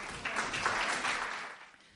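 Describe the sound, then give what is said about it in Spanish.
An audience applauds with a dense, steady patter of many hands clapping together, swelling briefly and then gradually fading out over a couple of seconds, with no voices over it. “Un fuerte aplauso, muchas gracias.”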